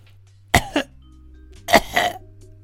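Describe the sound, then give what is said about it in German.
A voice imitates a rattling, gurgling breath: two short, harsh throaty bursts about a second apart, fairly loud, with no talking. “Ein Röcheln.”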